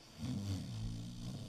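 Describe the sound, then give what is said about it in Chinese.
A single drawn-out, low rumbling snore from bears sleeping in the surrounding caves, steady and fairly loud throughout, with a throaty, growl-like buzz and no voices. “周围的洞穴里传来阵阵呼噜声，他的亲朋好友们都睡得。正香呢。”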